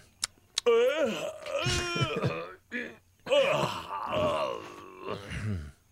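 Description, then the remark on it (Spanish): A person makes drawn-out, lazy groaning and stretching noises, voiced and wavering, with a couple of short clicks at the start and brief pauses between the moans, fairly loud. “Estos ruidos de holgazán son estos, ¿no?”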